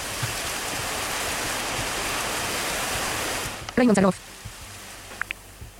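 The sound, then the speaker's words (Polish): Raindrops drum steadily on a car roof in a dense, hissing patter for about three and a half seconds, then stop abruptly. A short burst of voice follows in the quiet. “Krople bębniące w dach samochodu, zdaje się.”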